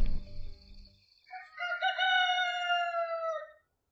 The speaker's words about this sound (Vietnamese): Tiếng gà gái lại vang lên Báo hiệu cho một ngày mới nữa bắt đầu